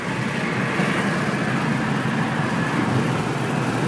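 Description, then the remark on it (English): A steady rumble of a car moving through dense traffic in Chicago, with continuous engine and road noise holding at an even level throughout and no one talking. “There's traffic right up close to the fucking car.”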